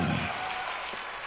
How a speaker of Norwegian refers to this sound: Masse applaus fikk han, og det var kanskje ikke så rart